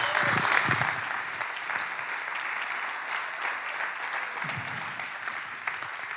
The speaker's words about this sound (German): Deswegen öffne deine Ohren Öffne deine Herzen, lass uns ihm einen richtig fetten Applaus geben.